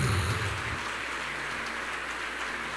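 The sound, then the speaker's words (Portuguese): A church audience applauds for the Lord in a steady, dense wash of clapping that holds at an even level throughout, with individual claps blurred together and no voices heard. “Será que você pode dar uma forte salva de palmas ao Senhor?”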